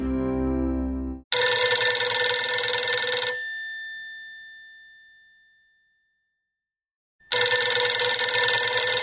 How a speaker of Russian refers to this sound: Снимешь трубку? О, Харчи, в этом доме, когда звонит телефон, значит, где-то что-то случилось.